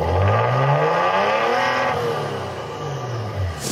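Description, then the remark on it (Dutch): A twin-turbo V6 petrol engine, developed and built by Ferrari, revs loudly, its pitch rising and falling in several sweeping surges with no one speaking. “het is ook een V6 benzine. Ja, dat is dat. Eh, ja. Dat is hem dus. Twin turbo.”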